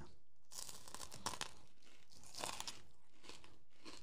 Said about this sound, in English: Oh, Sam actually say he loves it when you chew in the mic. Does he? Yeah. Really? No, he hates it.